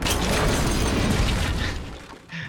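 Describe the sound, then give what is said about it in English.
A loud cartoonish 'Kaboom' explosion sound effect introducing an icebreaker segment: a dense, rumbling blast with heavy low end that roars for about two seconds, then quickly fades, followed by a brief faint tail. “I hope you guys leveled up enough to learn Kaboom because it's time for the icebreaker.”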